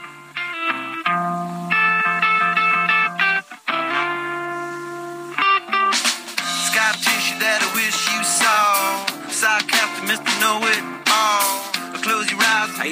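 A clean, undistorted electric guitar plays a bright melodic riff with sustained notes, then a fuller, busier stretch of music with percussive hits takes over about halfway through.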